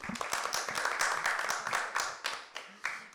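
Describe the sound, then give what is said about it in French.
An audience applauds the shopkeepers, a dense wash of many hands clapping steadily for a few seconds, with a few sharper individual claps standing out toward the end as it tapers. “On applaudit les commerçants, allez, on applaudit.”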